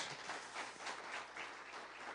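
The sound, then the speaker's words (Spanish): Steady applause from a crowd giving a loud round of applause to the Lord Jesus, a dense wash of many hands clapping at an even, sustained level throughout, with no voices standing out. “Dale un fuerte aplauso al Señor Jesús.”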